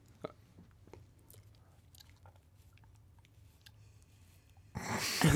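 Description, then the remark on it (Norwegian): Faint wet mouth sounds and small clicks of licking and chewing at a large biscuit during a 20-second eating contest, then a sudden loud, noisy burst of crunching near the end. “Du bare slikker på den.”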